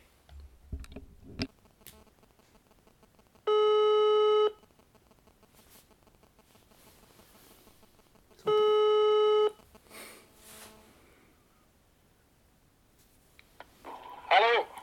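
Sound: telephone ringing tone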